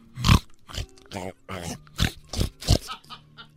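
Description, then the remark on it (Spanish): A person imitates a pig with a quick run of about eight nasal grunts and snorts, uneven in rhythm, some rough and breathy, others more voiced, ending in a softer trailing grunt. “Y nomás y el puerco.”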